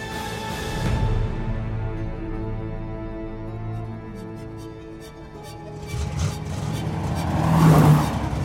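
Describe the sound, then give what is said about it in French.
A car engine roars at full throttle, its droning pitch climbing and swelling louder toward the end as the getaway car carrying Clyde and Fultz from a bank robbery accelerates hard, with no voices. “Clyde roule plein gaz pendant 500 km.”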